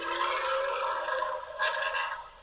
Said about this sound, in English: outside on the balcony in Spain, getting some car noises in the background. Oh, there it is.